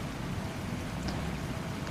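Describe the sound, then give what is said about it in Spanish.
Steady rainfall hisses evenly throughout in very cold, windy weather, a dense wash of patter with a low rumble underneath and no pauses or voices. “Está lloviendo. Hace mucho frío y viento.”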